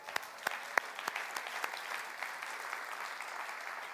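An audience claps together, a dense steady patter of many hands with a few sharper individual claps standing out at the start, holding at an even level throughout.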